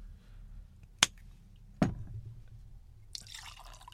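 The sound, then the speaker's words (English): Two sharp glassy clinks come close together, then a steady trickling pour of a 50 ml double shot of spirit into a glass starts near the end, fairly quiet, with no talking. “So a sling is a very ordinary mix of spirit, which I'm going to pour another good 50 ml double shot again”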